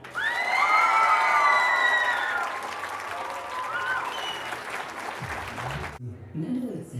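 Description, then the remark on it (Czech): A large audience at the Ostrava book festival applauds loudly and steadily, welcoming actor Norbert Lichý, with shrill whistles and cheers rising over the clapping, until it cuts off abruptly and a man starts speaking. “Ještě jednou ten nádherný potlesk z Ostravy, který vítá e, nejen tvář letošního ročníku knižního festivalu Ostrava, ale i držitele ceny Neviditelný herec.”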